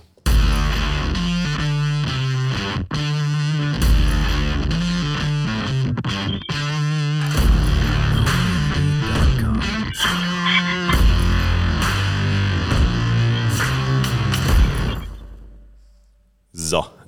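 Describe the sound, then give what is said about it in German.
Loud, heavily distorted intro music plays continuously for about fifteen seconds with dense, driving layers and processed, effect-laden tones, then quickly fades out, leaving a brief final burst. “warum uns demnächst recht kalt wird, hört ihr nach dem Intro.”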